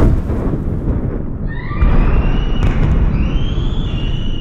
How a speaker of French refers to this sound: Une explosion des pleurs, des cris, des dizaines, des dizaines et des dizaines de bruits de choc, de violence, de larmes.